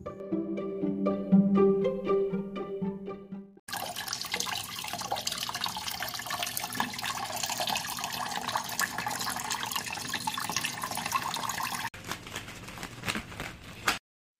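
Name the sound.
river water flowing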